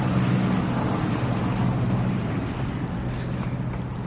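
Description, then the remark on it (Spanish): A boat motors along a river with the Statue of Liberty in the background, its low engine drone steady, washed over by constant wind and water noise for the whole stretch, with no voices. “Un barco navega por el río con la estatua de la libertad al fondo.”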